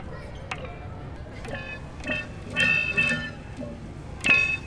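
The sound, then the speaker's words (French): The small rubber nozzles of a shower head, fitted with contact microphones, are pinched, producing a handful of squeaky, resonant, horn-like twangs at irregular intervals, amplified and processed with effects in Ableton, with the last one the loudest. “Alors en fait, le pommeau de douche, c'est les petites euh, tétines d'où sort l'eau qui sont pincées.”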